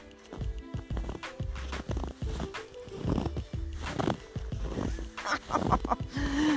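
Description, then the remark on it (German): Steady footsteps crunch and creak through snow, each step giving a squeaky, grinding crunch in a brisk, even rhythm of roughly a dozen paces, with no talking. “Hört man das Knarren?”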